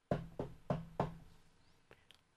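Four firm knocks on a wooden door on Shushan Purim, in a steady, evenly spaced, resonant rhythm, followed by a couple of faint clicks as the sound dies away.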